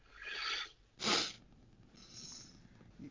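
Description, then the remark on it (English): A voice imitates a rasping monster's breathing: a hissy inhale, then a sharp snorting burst, followed by a quieter rough exhale, fairly soft. “You just hear this like gnarled breathing, just something is on the other side of that hedge, and it is not friendly.”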